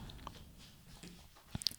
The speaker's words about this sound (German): Ähm, das ist der Hund, wenn du da gerade so Geräusche hörst. ähm, die schläft und bewegt sich manchmal.